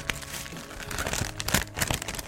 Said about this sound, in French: Donc voilà, quand l'objet est protégé, le papier bulle est mis, je, parfois, euh, voilà, je vais ajouter du papier de soie, le fameux papier de soie qui est très délicat